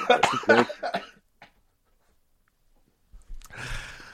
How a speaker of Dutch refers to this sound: Hij begint weer te hinniken of te hoesten. Het is heel veel geluid altijd.